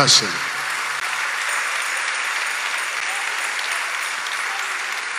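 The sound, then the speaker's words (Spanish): Sustained applause from a crowd, given for God at a sermon, a dense steady clatter of many hands clapping at an even loudness for several seconds, with a short voiced burst at the very start. “Se el aplauso para Dios,”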